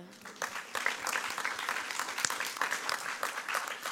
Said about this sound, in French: Alléluia, on peut l'applaudir.